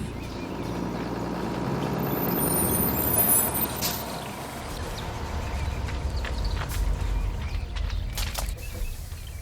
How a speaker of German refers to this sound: suchten die vier die nächste Bushaltestelle auf und warteten auf den Shuttlebus, der laut Plan gleich kommen sollte. Und tatsächlich fuhr er kurz darauf ein.